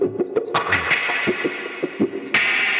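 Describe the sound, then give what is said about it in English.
A distorted electric guitar played through a stock Dunlop wah pedal, its tone sweeping in a vocal-like quack over choppy, rhythmic strums, loud, with a sustained ringing chord near the end. “So closest to the guitar, we have a wah pedal.”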